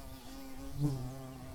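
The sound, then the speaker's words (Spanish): A bee buzzes steadily for about a second and a half, its drone swelling briefly louder midway before settling back. No voices accompany it. “me acordé de la abeja de, nuevo.”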